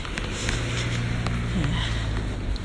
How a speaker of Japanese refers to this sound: 今横断歩道だったんだけどさ全然止まる気のない車怖いですよね横断歩道ですよ横断歩道で歩行者いるのにぶっ込んでくるとか当たってやろうかなと思いましたけど気をつけましょうね